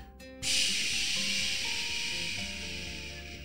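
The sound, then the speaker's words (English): A voice imitates gentle, calm rain as heard on a sound machine, with a steady, breathy shushing hiss that starts abruptly after a short pause and holds evenly, fairly loud, fading only slightly toward the end. “Have you ever heard rain on a sound machine where it's like”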